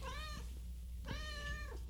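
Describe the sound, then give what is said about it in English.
A cat meows twice in quick succession during a Planning Commission meeting, each call drawn-out and tonal, over a steady low background hum with no one speaking. “That's not my cat. No, it's mine.”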